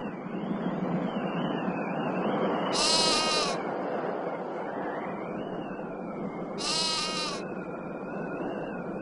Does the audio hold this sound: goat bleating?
yes